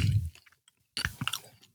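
Wet chewing sounds with soft squishy crunches, a brief pause, then another burst of mouth noises as someone eats.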